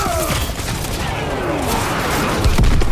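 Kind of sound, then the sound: sound effect, video game gunfire bursts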